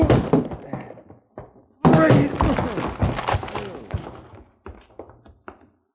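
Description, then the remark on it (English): A few heavy thuds against a wooden door as two men break it down, then a loud splintering crash as the door bursts open, followed by scattered clattering and scuffing that fades out. “Come on, help me bust this door down.”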